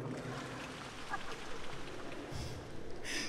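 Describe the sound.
Wet, bubbling mouth noises imitate a trickling fountain, a steady gurgling patter with two brighter hissy splashes near the end, moderately loud, with no talking over it.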